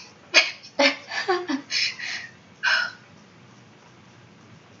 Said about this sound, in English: Oh god, I have burps. I'm sorry. Excuse me.